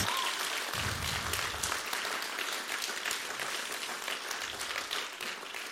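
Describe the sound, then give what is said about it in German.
Steady audience applause at the ICF Zürich church location fills the whole stretch, a dense patter of many hands clapping at an even loudness with no pauses and no clear voices on top. “Könnt ihr ihnen beiden mal einen riesen Applaus geben?”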